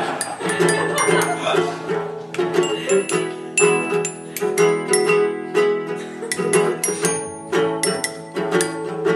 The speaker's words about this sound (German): Okay, dann, das, dann, dann ist das hier verstimmt wohl. Tipp. Stimmt. Entschuldigung, dass ich vorher das Glockenspiel nicht noch gestimmt habe mit meiner Flex.